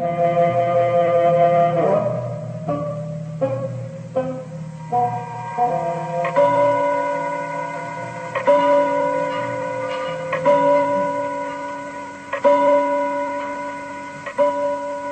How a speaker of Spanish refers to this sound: El viejo reloj de pared deja escapar el tañer de sus campanas y el varón de Tífano sonríe complacido.